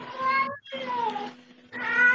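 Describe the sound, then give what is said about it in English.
A pet cat meows three times in quick succession, each call drawn-out and tonal with gliding pitch, loud, separated by brief pauses. “My cat.”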